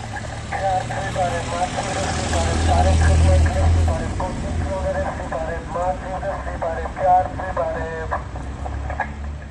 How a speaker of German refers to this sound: das war gerade das Geräusch von einem Lautsprecher auf einem Auto, das an meiner Wohnung vorbeigefahren ist. Wahrscheinlich eine Durchsage, um Altmetall einzusammeln. Ich weiß nicht so genau.